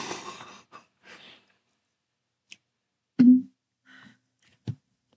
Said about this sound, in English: I'm ready. I'm ready to chew goldfish into the microphone. Perfect. Perfect. That's the kind of sound we want.